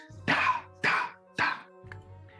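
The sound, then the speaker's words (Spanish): An auctioneer strikes a golden gavel on a podium three times in quick, evenly spaced succession at an auction, each loud hollow knock ringing out briefly over a faint background hum, followed by a softer tap. “La martillera levanta un martillo dorado y golpea sobre el púlpito tres veces una vez más.”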